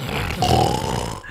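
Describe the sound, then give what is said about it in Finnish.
A voice imitates a person's loud snoring, likened to a crocodile: a single rough, rumbling growl held for just over a second, with a throaty rasp and a thin whistling tone running through it. “Janne kuorsaa aivan saakelin lujaa”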